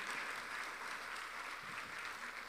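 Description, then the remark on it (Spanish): A crowd claps steadily in applause to Jesus the Lord, a dense wash of many hands at an even level for the whole stretch, with no voices rising above it. “Si me van entendiendo, le un aplauso a Jesús el Señor.”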